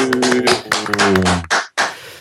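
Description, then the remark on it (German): A short, loud burst of applause with rapid overlapping claps over a sustained low tone, breaking into two brief swells of clapping that fade quickly. “Ja, hallo hier mal einen kleinen Applaus für Musikgespräche.”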